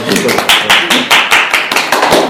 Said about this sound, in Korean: 박수를 치쳐야 될 것 같은 느낌이.